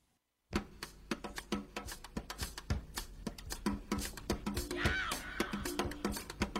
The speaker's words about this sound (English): Wow, how many times I going to tell you guys not to run that coffee machine?